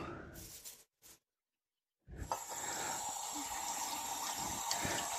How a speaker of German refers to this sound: Dann gebe ich zur Sicherheit jetzt noch so einen ganz kleinen Stritz Wasser dazu.